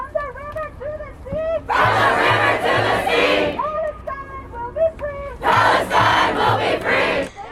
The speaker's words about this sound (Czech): jakoby dav, nebo tam bylo třeba 200 lidí, ale jakoby veliká skupina lidí opravdu se vlnila, skákala, skandovala.